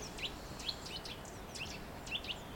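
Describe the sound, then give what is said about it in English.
A nuthatch gives short, liquid chirping calls in a loose series of about eight notes, fairly faint over a steady hiss of outdoor background noise. “That liquidy sound is a nuthatch.”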